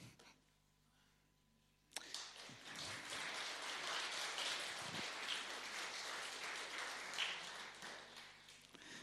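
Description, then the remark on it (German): After a couple of seconds of near silence, an audience bursts into applause to thank the youth work groups. A dense, steady clatter of many hands clapping holds at an even level for about seven seconds. “Genau, das war der richtige Moment zum Klatschen.”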